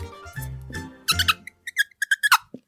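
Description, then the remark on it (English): A voice imitates a squeaky fart: a low, buzzy strained tone gives way to a rapid run of short, high-pitched squeaks, fairly loud, ending in a brief low sputter. “Because if he lets one out and it's too loud, they'll kill him.”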